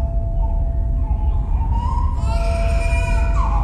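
A newborn baby cries in thin, rising wails that grow more insistent toward the end, partly buried under a heavy, steady low rumble.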